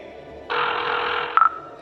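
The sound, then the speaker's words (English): A steady hiss of static gives way to a quick cluster of short electronic beeps as a man dials a number on his phone, moderately loud, with no talking. “shoved me in a chair, then dialed a number on his phone.”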